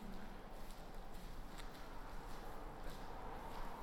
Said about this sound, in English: lot of times too, footsteps by themselves can be kind of eerie.